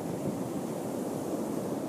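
A steady wash of ocean surf rolls against the shore, a broad, continuous rushing roar with a faint hint of wind, even in loudness throughout.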